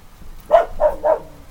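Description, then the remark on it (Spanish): A female dog barks three times in quick, evenly spaced succession, moderately loud, with a faint low background hum and no talking. “Y yo corriendo la perra.”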